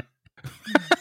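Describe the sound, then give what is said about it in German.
Two sharp, voiced sneezes burst out in quick succession near the end, fairly loud, after a brief quiet intake of breath. “Gesundheit.”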